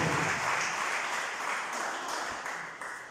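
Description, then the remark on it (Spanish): An audience breaks into sustained applause for Christ Jesus in the evening, a dense wash of many hands clapping at steady loudness for several seconds with no speech over it. “Denle un aplauso a Cristo Jesús, por favor esta noche.”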